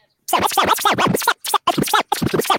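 DJ record scratching: quick back-and-forth pitch-sweeping bursts, loud, first a long run of rapid scratches, then several shorter choppy bursts separated by brief silences.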